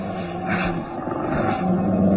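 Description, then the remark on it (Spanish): A deep, menacing animal growl rumbles continuously for a couple of seconds, loud, with a rough, throaty roar-like texture and no voices. “que fue un gruñido. Algún perro rabioso, tal vez.”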